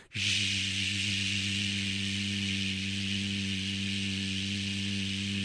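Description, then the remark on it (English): A voice imitates the white noise of a room's heating or cooling fan with one long, steady, breathy hiss that starts abruptly and holds evenly for several seconds, fairly loud, with no talking. “And what I've started to do is I turn on the fan in the room, like the uh, the heating or the cooling system, and it creates that white noise.”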